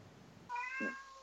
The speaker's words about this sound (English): i think that uh it's my cat una, my cat una wants, wants her, supper she, she, wants her supper